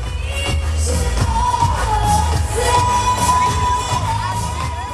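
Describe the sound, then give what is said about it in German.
A large crowd at a hot June pride parade in Tel Aviv cheers and shouts continuously and loudly, with high whoops and whistle-like cries rising above a dense roar of voices and a low rumbling undertone. “Es ist heiß und laut in Tel Aviv und äh, wir schmeißen uns mal in den Trubel”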